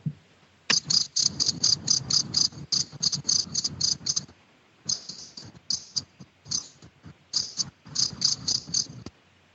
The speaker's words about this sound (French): Bon, le son est un peu saccadé, mais enfin, c'est pas grave, je crois qu'on aura, on aura reconnu. Donc, le quiz de la semaine dernière, euh, c'était une affirmation on peut déterminer la température ambiante grâce au champ des grillons.